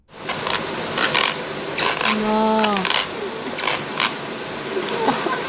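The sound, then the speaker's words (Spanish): Teeth grinding during sleep, recorded at night: a series of gritty scraping and creaking bursts that repeat irregularly, with one drawn-out squeaky grind in the middle. “Escuchen nada más lo que hace el ruido con sus dientes.”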